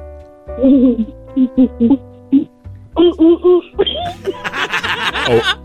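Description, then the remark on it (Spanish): A child's voice imitates a gorilla with a series of short, rhythmic hooting grunts that build into louder, rougher screeching calls near the end, fairly loud. “Ahora hazle el ruido de un gorila.”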